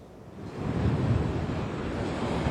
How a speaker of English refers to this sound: You can see the storm surge right now almost at the high tide mark, making its way over across the banks.